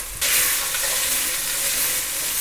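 Bell pepper is added to a hot pan of frying onion with a sudden loud sizzle, then keeps frying in a steady, dense crackle and hiss as it's stirred vigorously, with no talking.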